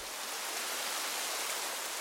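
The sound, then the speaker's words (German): Steady rain falls with an even, dense hiss, no individual drops standing out. It holds at a constant moderate level throughout, with no voices. “Daraus bilden sich dann Wolken und diese Wolken kühlen die Luft und Spenden regen.”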